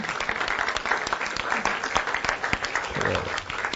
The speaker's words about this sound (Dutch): Prijs de Heer. Een applaus voor de Heer Jezus. Amen.